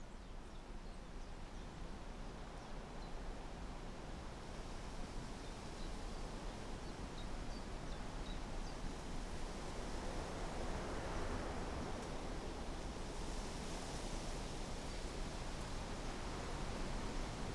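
A light wind rustles through beech leaves, a soft, steady hiss that swells gently midway and keeps going, with no voices and only faint scattered chirps in the distance.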